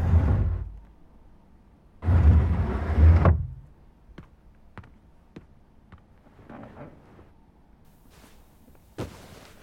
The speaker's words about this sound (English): I'm just tired of hearing you fail to push the stupid bed.